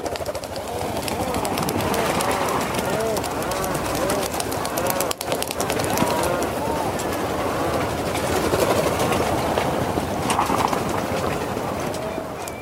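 A dense chorus of many rhinoceros auklets calling at once at their breeding colony on Teuri Island, Hokkaido, Japan, low groaning and mooing cries overlapping continuously, loud, like a crowded nesting colony at night.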